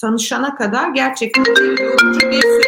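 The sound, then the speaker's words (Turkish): A person is speaking when a loud, melodic mobile phone ringtone, coming through the speaker's computer connected to the phone, cuts in partway through, its electronic notes stepping between steady pitches and playing on prominently near the end. “E, çok pardon benim bilgisayarım cep telefonuma bağlı izleyicilerimiz affetsinler.”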